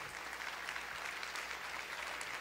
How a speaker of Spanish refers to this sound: Lo segundo, denle el aplauso al Señor entonces.